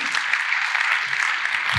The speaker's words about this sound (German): War das nicht ein fantastischer Herr Kunde? Applaus bitte, danke vielmals.